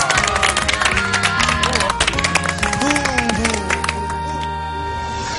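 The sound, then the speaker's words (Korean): An audience applauds performers with dense, steady clapping that carries on for several seconds, mixed with voices and sustained tones, then thins and softens near the end. “우리 저기 고생해주신, 수고해주신 단원 박수로 예. 수고하셨습니다.”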